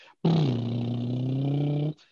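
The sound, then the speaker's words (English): A man's voice imitates a car engine, acting out an old man in an old folks home sitting on his bed pretending to steer a car: one long, steady, low-pitched droning rumble lasting under two seconds, loud and unbroken, with a brief dip in pitch at the start. “So the nurse comes over to the first room and the guy's sitting there on his bed pretending he's steering a car going”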